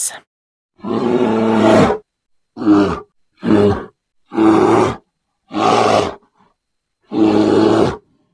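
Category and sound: animal, bear roaring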